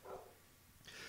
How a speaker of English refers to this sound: Sorry if you guys can hear that. That's my dog barking like an idiot. I don't know what her problem is. Um, She's a dog. She doesn't have a problem. She just barks.